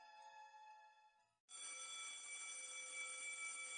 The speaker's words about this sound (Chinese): 中午放学铃声响起。